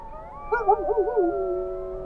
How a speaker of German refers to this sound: Die neuen Töne sind der fortgeschrittenen Jahreszeit angepasst. Von forte bis fortissimo reicht das Register und es ist die Symphonie der Wölfe.